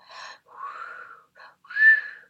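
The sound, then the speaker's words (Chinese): In a music therapy game called Pass the Sound, a voice mimics blowing up a balloon that grows bigger and bigger with several breathy, hissing puffs in a row. The last puff is the loudest and carries a faint whistling tone. No one speaks. “假装在吹一个气球，越来越大，然后你要传给现场的另外一个人。”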